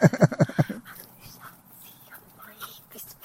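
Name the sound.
dog panting and whimpering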